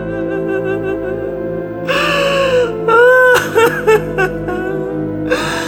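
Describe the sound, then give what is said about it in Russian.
Women sob and wail in rising, broken bursts, with catching breaths and quavering cries over a steady low tone underneath, as Martha and Mary mourn their brother Lazarus at home in Bethany. “Марфа же и Мария оплакивали своего брата дома.”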